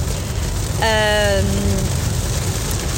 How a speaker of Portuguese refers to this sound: Vocês estão a ouvir bem a chuva, não estão agora? Agora estão. São Pedro, ah, a tempestade chegou com um dia de atraso, graças a Deus.